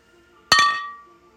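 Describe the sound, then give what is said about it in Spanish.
Beer glasses clink together once in a toast, a bright chime with a quick double tap and a ringing tone that fades over about half a second. No one speaks. “salud. Una chelita con JP siempre va a estar aquí con ustedes”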